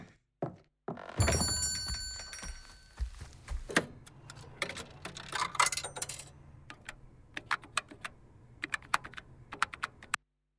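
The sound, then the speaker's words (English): A quarter clinks and rings as it drops into a payphone out front, followed by a clunk and a run of sharp, uneven mechanical clicks, like buttons being pressed, fairly loud with no voices. “What about your payphone out front? That accept blood donations? A quarter for two minutes.”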